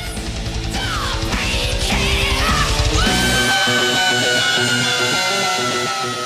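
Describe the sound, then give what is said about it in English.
A loud heavy metal band is joined by the singer's piercing, high-pitched vocal scream at the end of a chorus, rising and then holding a long, steady note over the driving drums and guitars. “a distinct moment in the song where he screams, like he really, you know, kind of cuts loose at the end of each chorus”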